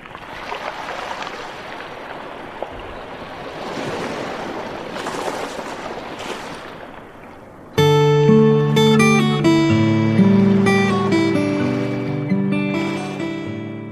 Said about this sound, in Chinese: 天气阴沉，云层压得很低，海浪比平时大了许多。没有多少人，海的声音仿佛一场闷声的交响曲。